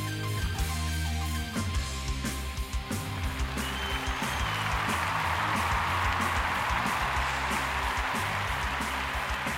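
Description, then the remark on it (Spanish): Music with a steady low hum fades as a large crowd's applause rises after a few seconds, then keeps up as a dense, loud, continuous wash of clapping to the end; an audience of about 80,000 people filling a large arena at an awards ceremony. “Muchas gracias, muchas gracias, muchas gracias a todos por vuestros aplausos.”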